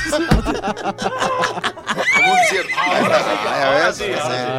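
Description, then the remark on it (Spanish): A person imitates a horse's whinny with a loud, wavering, high-pitched neigh that rises and trembles for a few seconds, with breathy vocal bursts and chuckling around it. “Ya relincha.”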